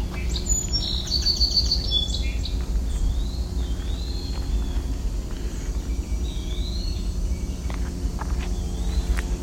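A Baltimore oriole sings far off, its faint whistled phrases repeating every few seconds over a steady low outdoor rumble, with a burst of sharper chirps near the start.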